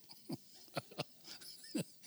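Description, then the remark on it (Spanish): A small dog under a table gives four short, sharp barks at irregular intervals, fairly faint and a little muffled, with no voices alongside. “Ahí estás abajo de la mesa, ladrándome.”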